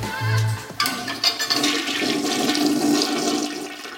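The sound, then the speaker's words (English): A toilet in a home being toured flushes, a sharp click giving way to a loud, steady rush of swirling water that fills the whole few seconds, with no voices. “check out this toilet.”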